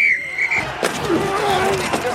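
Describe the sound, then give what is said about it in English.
A dense collage of sports sounds layered together for a Sling TV advertisement: a high squeal at the start, then a sharp crack followed by overlapping crowd noise, squeaks and scraping, all loud and busy, mixing football pads colliding, basketball shoe squeaks, a bat cracking on a home run and skates on ice. “That's the sound of all the sports you love, all at once.”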